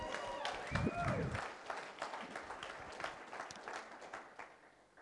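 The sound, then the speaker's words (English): A church audience bursts into cheering and applause, thanking God for children to be baptized the next week, with whoops and shouting voices at the start, then steady clapping that gradually thins and fades out over the following seconds. “And I think we should all cheer or something.”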